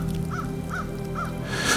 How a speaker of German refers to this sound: Der Ruf einer Krähe erklang, so als würde sie ihn verspotten.